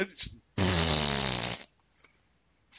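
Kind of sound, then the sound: human body sound, fart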